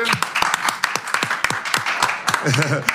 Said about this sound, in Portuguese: Palmas para ele.